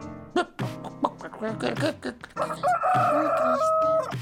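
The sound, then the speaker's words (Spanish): A rooster clucks in a few short, choppy bursts, then lets out one long, loud crow that holds steady for over a second before breaking off. No talking. “Y el gallo se marchó dando salto.”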